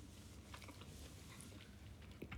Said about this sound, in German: So, wir schmatzen ja schon wieder gleichzeitig ab.